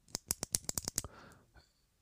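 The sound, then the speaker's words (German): A ballpoint pen clicked rapidly about eight or nine times in a sharp burst, followed by a brief soft rustle before quiet. “Ich meine, mit einem Klick auf einen Kuli”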